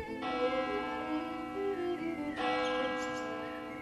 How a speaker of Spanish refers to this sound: Las campanas de la catedral resuenan en todo el pueblo y lo convocan a reunirse en el templo.